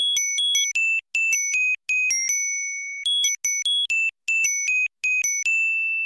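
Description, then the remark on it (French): A bright carillon chime in a film's music plays a light, high-pitched melody in quick stepping phrases that repeat, each note ringing clearly with short pauses between groups, loud with no voices. “Euh, qui contrebalance, on va dire, ce, côté très, très sombre du, de ces violons, avec euh, un carillon.”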